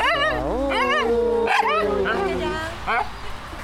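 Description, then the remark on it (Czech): A small dog gives a quick series of high, pitch-sliding yips and whiny barks while people talk in the background, at an illuminated Christmas-light display; the dog was brought by visitors who came from Pardubice. “My jsme přijeli z Pardubic, a, takže máme tady vnučky a, a pejska.”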